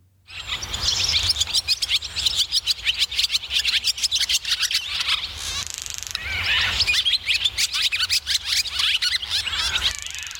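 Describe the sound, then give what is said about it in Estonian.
A barn swallow's rapid twittering song, a busy stream of chirps, trills and buzzy notes repeating nearly continuously, clear with no voices. “suitsupääsuke on väike lind, pikenenud kerega, pika kaheharulise sabaga ning pikkade teravate tiibadega”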